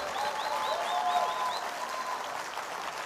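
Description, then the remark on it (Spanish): An audience applauds the Lord together during a morning church service, a dense, steady wash of clapping that holds at the same level for about three seconds, with a few high-pitched whoops rising above it early on. “dar el mejor aplauso que puedas dar al Señor en esta mañana.”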